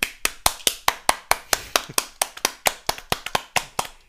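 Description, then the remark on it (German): A short burst of applause: about twenty crisp, sharp hand claps in a quick, fairly even rhythm, clearly audible with no talking over them. “Wir müssen jetzt mal ganz kurz einen Moment schweigen und dann einen mega Applaus geben für nämlich die beiden Sprösslinge eines unserer Podcast-Gäste.”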